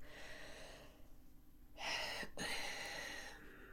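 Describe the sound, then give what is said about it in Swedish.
A single deep breath, drawn in with a soft airy rush and then let out in a longer, steady exhale. It's fairly quiet, with no talking around it. “tror att det är delvis genom att göra precis det du gjorde. Ja. Andas.”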